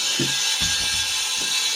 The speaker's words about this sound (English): There's a guy drilling across the road